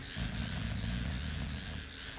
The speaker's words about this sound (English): Oh, wow, that's dog.